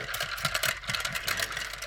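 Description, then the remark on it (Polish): A small drone's propellers, held up to the microphone, spin with a steady, high-pitched whirring buzz that flutters slightly but never stops, fairly loud and heard alone with no talking. “Tak, i tutaj wyraźnie jest taki wiatraczek.”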